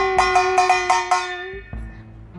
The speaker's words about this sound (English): That's my bell.